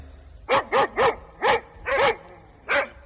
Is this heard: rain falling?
no